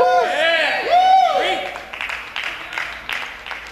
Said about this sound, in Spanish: Gracias por esos tres hermanos que me animaron con ese aplausito.